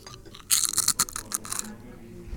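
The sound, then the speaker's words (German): A crunching sound effect from a crunch button (Knuspertaste): a burst of crisp, crackly crunches with bright high-end snaps, lasting about a second before fading into quiet background. “Das war die Knuspertaste.”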